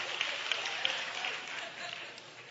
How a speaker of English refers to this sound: Now, I should have got a hand clap from all the women.